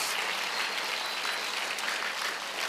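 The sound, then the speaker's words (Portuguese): An audience claps steadily together, a dense, even wash of many hands with no gaps, sustained at a constant level throughout and no voices rising above it. “Pode aplaudir o Senhor Jesus.”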